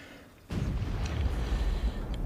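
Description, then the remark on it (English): A cannon fires with a sudden heavy boom, followed by a deep, sustained rumble that rolls on for nearly two seconds. No voices are heard. “After seeing that cannon, I wonder what it would do to a man to stand in front of the one that fired a thousand spikes.”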